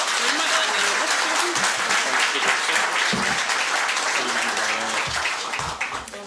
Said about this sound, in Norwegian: Gi dem en varm applaus!